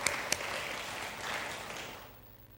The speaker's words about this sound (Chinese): 哈利路亚！拍手荣耀归给上帝。阿门！